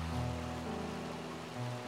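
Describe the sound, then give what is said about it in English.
A steady, continuous rush of flowing river water at Greenhead Gill, a river running through a narrow valley, even and unbroken, with a low rumbling undertone and no voices. “The place we're standing now is called Greenhead Gill, a gill being a river running through a narrow valley.”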